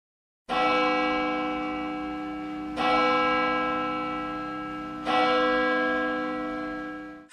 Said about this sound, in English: A bell, B E L L, is a metal thing that makes a sound when you shake it. It sounds like.